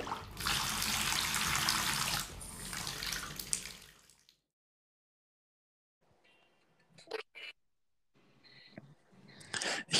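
Cold tap water gushes loudly into a bathtub for about four seconds, then cuts off; after a short silence come a few scattered splashes and knocks.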